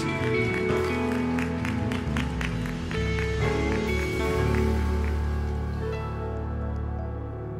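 An audience applauds loudly and steadily for several seconds, giving applause to Jesus for the coming inauguration of the first floor of the Novos Sonhos daycare; dense clapping mixed with sustained tones and raised voices, easing off slightly toward the end.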